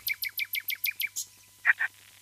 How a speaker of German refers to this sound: Das Besondere ist, dass die 260 verschiedene Lieder drauf hat und und die Nachtigall, die du jetzt hier abspielen lässt, die ist nicht so toll wie die, die im Hintergrund war